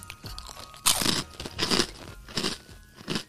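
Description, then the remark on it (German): A sharp crunchy bite into a speculoos-flavored cookie followed by several crackly chewing bursts in an uneven rhythm, loud with no talking. “Und jetzt wollen wir einmal das testen, ob es wirklich nach Spekulatio schmeckt.”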